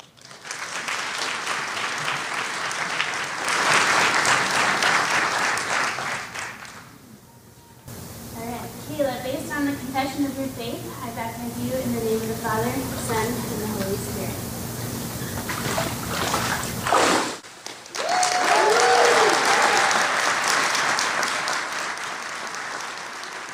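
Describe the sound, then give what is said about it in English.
An audience claps loudly in a dense, steady burst for a faith testimony shown on video, falls quiet while someone speaks for several seconds, then breaks into another full round of applause. “can clap even though it was on video.”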